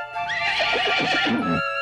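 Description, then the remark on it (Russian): A horse lets out one long, loud whinny lasting over a second, its trembling, quavering call rising and then falling away, with no one talking. “Король с королевой, как все сказочные короли, по утрам делали зарядку, а днем совершали прогулки верхом.”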